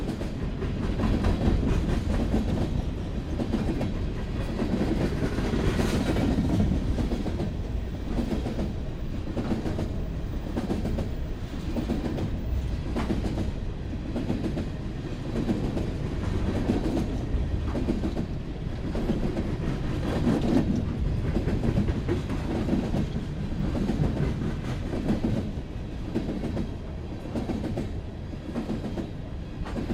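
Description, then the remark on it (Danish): A train rolls steadily along the rails, its wheels beating out a repeating clickety-clack over a deep, continuous rumble, loud for the whole stretch with no voices. “det her med rytmikken, som jeg talte om, og med det teksturelle, det er både spændende at høre lavt og højt, og så øh, er det meget øh, øh, musikalsk også.”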